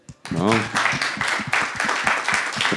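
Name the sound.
hand clapping applause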